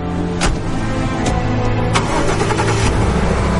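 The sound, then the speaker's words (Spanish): A car engine starts up, a few sharp cranking bursts giving way to a steady low rumble that stays loud throughout, with no voices. “Se sube, arranca.”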